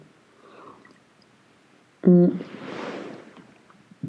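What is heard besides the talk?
sipping coffee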